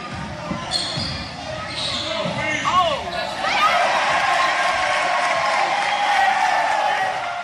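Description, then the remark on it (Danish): A busy sports hall: repeated ball bounces thud irregularly against a steady roar of crowd noise, shouts and squeaking shoes, with voices echoing throughout. “For det er jo selvfølgelig lyden fra en sportshal, hvor der bliver gået til den.”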